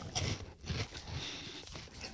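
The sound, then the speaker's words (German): Loud crunching as someone bites into and chews crispy onion rings, a series of dry, crackling bursts in an uneven rhythm with no talking. “Ist heute ein sehr lauter Podcast, glaube ich. Ja, es knuspert viel.”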